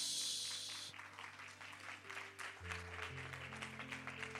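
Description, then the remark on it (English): Dense, steady applause from a crowd during a sermon, many hands clapping at once in a continuous wash, with sustained keyboard or organ chords shifting underneath. “Come on, that deserves a better hand clap.”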